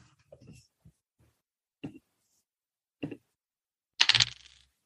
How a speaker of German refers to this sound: Einmal noch würfeln.